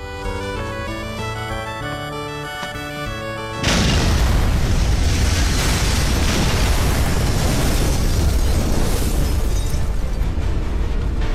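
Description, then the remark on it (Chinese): A few seconds of steady tonal music cut off by a sudden, loud bomb explosion, which rolls on as a dense, roaring rumble until the end, with no one speaking. “随着时间来到一点四十四分，距离炸弹爆炸就剩不到一分钟了。”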